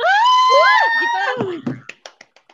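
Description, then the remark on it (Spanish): An applause sound effect: a warbling, voice-like tone glides for about a second, then gives way to five or six sharp, evenly spaced hand claps that ring briefly and fade, like a short round of slow clapping. “Y aquí es donde entran explosiones, aplausos y demás.”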